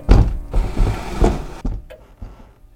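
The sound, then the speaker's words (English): A heavy wooden bookcase secret door scrapes and rumbles shut, with a few low thuds and a final solid knock as it settles, fairly loud with no voices. “Put your immense robot strength to good use and help us open this bookcase door.”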